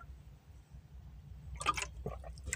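Water is poured or sipped: a couple of brief, splashy liquid bursts near the end, following a quiet stretch with only a low background hum.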